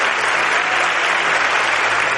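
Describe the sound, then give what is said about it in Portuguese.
A church audience breaks into steady, sustained applause for Jesus, a dense wash of many hands clapping at an even loudness throughout with no voices standing out. “Palmas para ele.”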